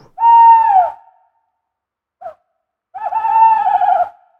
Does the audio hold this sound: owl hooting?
yes